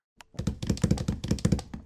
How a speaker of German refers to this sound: Luca benutzt ihre Taubenkraft und tritt gegen den Äpfelbaum, wo Krähe drunter sind.